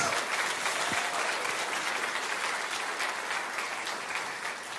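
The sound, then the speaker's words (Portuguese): Sustained applause from a large audience, dense and steady clapping filling the whole stretch, tapering off slightly toward the end, with no talking over it. “Dê para ele uma forte salva de palmas.”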